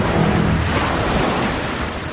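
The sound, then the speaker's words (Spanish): Ocean waves break and wash onto the shore in a loud, continuous roar of surf, swelling briefly at first and then easing slightly, with no voices present. “Yo lleno el mundo, el planeta es azul, el planeta soy yo, un mar colosal, inmenso.”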